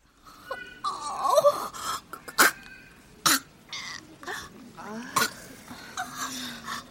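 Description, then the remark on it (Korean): A woman gags and hacks repeatedly with phlegm blocking her throat, sharp throaty coughs and retching sounds in an uneven series, fairly loud, with strained breathy noises between the bursts; no words are spoken. “엄마가 다시 캑캑거렸다. 가래가 목구멍을 막고 있는지 속을 다 개워낼 듯 캑캑거리며 허이허이 손을 저어 각 티슈 통에서 휴지를 뭉텅 뽑아내 힘차게 가래를 뱉어냈다.”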